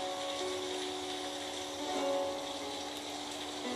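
Steady, even rain hiss fills the whole stretch at a moderate level, with a faint low droning hum of vehicles running underneath. No one speaks.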